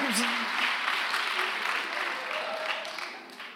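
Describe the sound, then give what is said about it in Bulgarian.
Steady crowd applause, a dense wash of many hands clapping at an even, moderate level for a few seconds before tapering slightly at the end, with brief voices mixed in. “Аз дори не очаквах да има ръкопляскане, но това беше ръкопляскане.”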